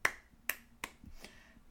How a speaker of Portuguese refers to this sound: Epá, gostei, gostei sim senhora, uma palma.